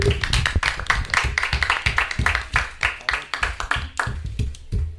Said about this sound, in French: Bah, en tout cas, merci beaucoup d'être venu assister à notre émission. Je crois qu'on peut vous applaudir quand même.